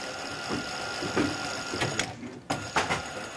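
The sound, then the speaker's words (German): A sewing machine used by trainee upholsterers whirs steadily with a mechanical hum, broken by sharp clicks and thumps as the stitching starts and stops. No one speaks. “Während der dreijährigen Ausbildung sitzen sie auch immer wieder an der Nähmaschine oder greifen zu Nadel und Faden.”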